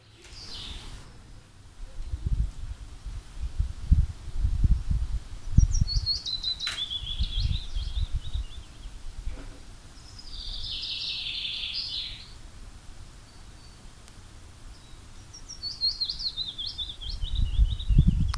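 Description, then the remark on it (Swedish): Two birds, recorded together on the same disc, sing together, trading short descending trilled phrases at a high pitch, each bout a couple of seconds long, over a low rumbling background with no talk. “det var, var det två eller tre strofer av vardera?”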